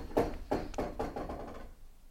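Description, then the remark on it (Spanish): A chair knocks and bumps against the floor in a quick, uneven series of five or six hollow wooden thuds, fairly loud, then falls silent. No one speaks. “Ah, fue una silla”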